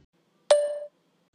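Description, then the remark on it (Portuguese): A single bright clink of glasses touching in a toast, ringing briefly with a clear sustained tone that fades within half a second, isolated against silence. “E um brinde aí aos jogos horríveis que são lançados perto do Natal para enganar um monte de pais e crianças também, né?”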